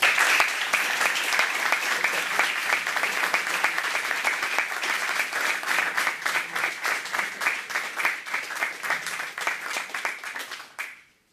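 A crowd applauds a priest as he is introduced to speak, steadily for about eleven seconds, a dense, even patter of many hands clapping that stays loud throughout before cutting off abruptly at the end.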